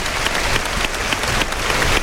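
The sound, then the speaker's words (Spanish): A large bullring crowd in Almería applauds steadily, dense clapping filling the air at a constant, loud level with a broad roar underneath, an ovation for bullfighter Emilio de Justo as he comes out on his return. “Oigan, oigan la ovación para Emilio de Justo que reaparece en nuestra tierra.”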